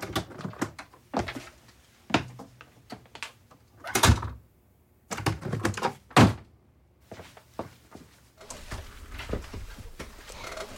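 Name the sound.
sticking door being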